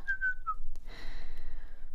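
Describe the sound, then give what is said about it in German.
A person whistles a short, bright tune of a few clear notes, then breaks off, leaving a fainter hissy tone trailing behind. “Denn mir fiel es wie Schuppen von den Augen, als ich die Tür zu meinem Puppenzimmer aufriss, beglückt pfiff und dann stockte.”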